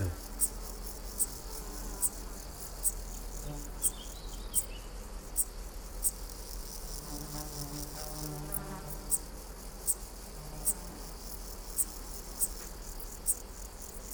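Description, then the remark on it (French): A splendid bush-cricket stridulates with short, sharp, jerky chirps at a steady rhythm of roughly one every second, recorded on 30 July 2018 at the Col de Carabès, 1100 m altitude, with a dark bush-cricket also calling and meadow grasshoppers forming the continuous background hum; no one speaking. “Alors ce chant est caractéristique par cette espèce de bruit de de, crissement de saccadé.”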